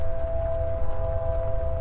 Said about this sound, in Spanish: La bola ojo de fuego se dirige hacia mí. Un sonido se comienza a anidar en mis oídos, un pequeño zumbido, agudo.